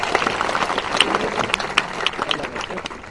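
An audience at a convention claps steadily in a dense, crackling patter of many hands, with a few sharper claps standing out before the applause thins slightly at the end.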